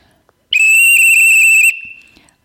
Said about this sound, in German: dann mache ich erst diesen Trillerton und danach kommt das Signal Sitz das ist so der übliche Aufbau von einem Sitzpfiff und das muss ich dann sicherlich mindestens zehnmal machen